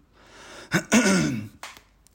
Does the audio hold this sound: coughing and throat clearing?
yes